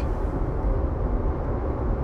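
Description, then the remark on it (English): A steady, heavy low rumble of a vehicle being driven through traffic, like road noise heard from inside a car while driving, constant and fairly loud with no voices. “So now I'm going to continue my way through this traffic”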